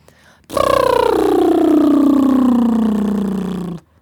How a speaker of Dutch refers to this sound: Een voorbeeld daarvan is de liptriller.